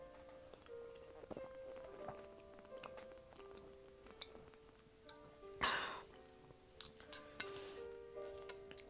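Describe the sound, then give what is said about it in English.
Quiet drinking as someone chugs a drink: a glass clinking and a few gulping swallows, one sharper burst midway, over a soft steady background hum. “If you hear me gulping, I'm, I'm trying to chug my drink.”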